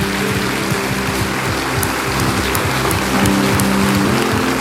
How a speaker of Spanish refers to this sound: Dale un fuerte aplauso al Señor por su palabra.